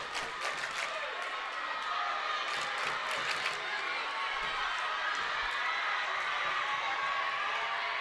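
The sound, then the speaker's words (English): The Adams student cheer block roars steadily throughout a high school basketball game at Plymouth High, a dense wash of yelling voices with a few sharp bursts and claps rising out of the din. “Adams cheer block right down in front of us, our press position here in the corner at Plymouth High.”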